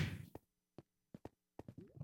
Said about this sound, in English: What was that? That was some fireworks going off outside.